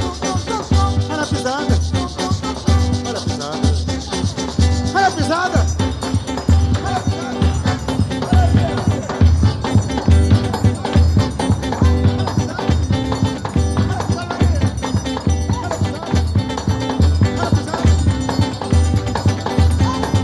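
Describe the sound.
A recorded forró song plays loud and full, with a steady, driving bass pulse and bright instrumental lines, and a singing voice carrying the melody throughout.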